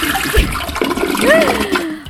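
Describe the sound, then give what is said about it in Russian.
A toilet flushes on air on Radio Nestandart with a loud, steady rush of gurgling water lasting about two seconds, a brief whistling tone rising and falling midway before the surge starts to taper off. “Торжественно смываю все проблемы, привлекаю удачу, счастье и любовь э, в эфиры на радио Нестандарт и всем слушателям, которые нас слушают.”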